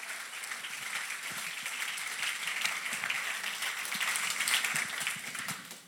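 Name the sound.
audience applause in church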